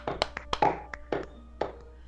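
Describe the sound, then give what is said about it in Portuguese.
A handful of sharp hand claps land at an uneven pace, some quick pairs and some spaced apart, with a faint murmur of voices underneath. “Palmas aqui, palmas, palmas, palmas.”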